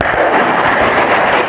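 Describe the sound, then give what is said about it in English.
Ukrainian soldiers fire a HIMARS mobile rocket launcher on a training range in Germany, with a loud, continuous roaring rush that fills the whole moment, steady and powerful without a break, and no voices can be heard. “That's the sound of Ukrainian soldiers firing mobile rocket launchers known as HIMARS.”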